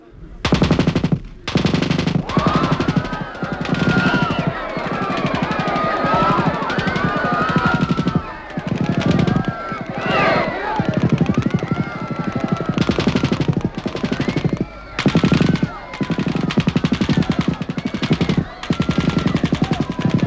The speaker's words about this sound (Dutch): Ze schoten over hun hoofden heen. Hoe weet je dat? Als ze met hun machinepistolen van 20 meter afstand op die mensen geschoten hadden, was de straat nu niet helemaal leeg.